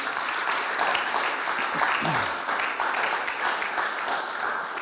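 A crowd applauds steadily for several seconds, a dense, even wash of many hands clapping at a constant loud level, with a brief voice or cheer rising faintly in the middle.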